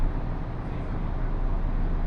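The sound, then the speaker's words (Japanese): A local one-man train sits idling at a station, stopped for a while to let another train pass, its engine giving off a steady, low rumble that holds at an even level throughout with no breaks or other distinct sounds. “この列車は普通列車の美濃太行きワンマン列車ですご利用いただきましてありがとうございます列車行き違いのためしばらく停車します”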